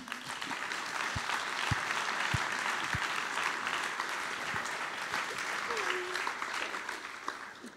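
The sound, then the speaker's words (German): Steady, warm applause from an audience greeting a woman invited up to take part in an experiment, a dense wash of many hands clapping at an even loudness for several seconds, with a few sharper claps and faint voices mixed in. “Und ich wünsche mir, dass ihr sie mit einem herzlichen Applaus begrüßt.”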